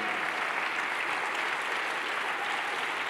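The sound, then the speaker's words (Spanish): Sustained crowd applause given for the Lord fills the whole stretch, a dense steady roar of many hands clapping at an even, fairly loud level with no talking on top. “Alguien le puede dar fuerte ese aplauso al Señor.”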